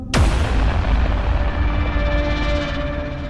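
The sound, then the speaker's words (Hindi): A glass bottle thrown against a door at night, around midnight, makes a single loud, sharp crash, followed by a ringing, rattling tail that slowly fades over a few seconds. No one speaks. “रात के करीब 12 बजे के आसपास सोने चले गए तब उनके दरवाजे पर किसी ने कांच की बोतल फेंकी”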